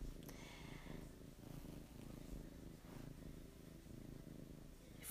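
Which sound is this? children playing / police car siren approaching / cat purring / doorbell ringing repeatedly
cat purring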